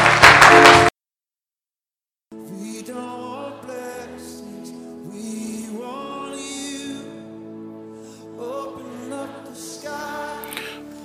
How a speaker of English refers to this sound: Clap your hands together for the Lord.